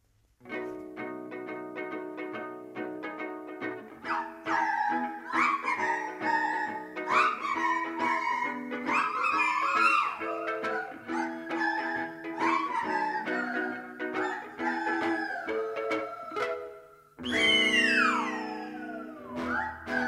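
A whole orchestra of nose flutes, special flutes held to the nose and blown into, plays continuously, with many breathy, whistling high tones layered over a sustained lower accompaniment, including sliding pitches and a brief pause before a final swelling passage.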